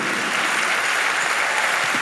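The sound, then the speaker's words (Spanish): A steady wash of audience applause, loud and dense, with many hands clapping together in a continuous crackling roar and no voices over it. “Dale el aplauso fuerte.”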